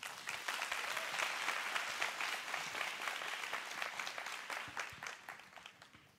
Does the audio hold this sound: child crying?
no